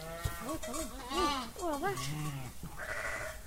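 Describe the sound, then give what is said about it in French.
Several sheep and goats bleat in quick succession, their wavering, harmonic cries overlapping, with a higher, thinner bleat toward the end; a faint voice may be present. The farm flock has 140 ewes and lambs plus 10 nanny goats and 3 castrated male goats. “les brebis, euh, les petits agneaux, je vais les vendre début janvier.”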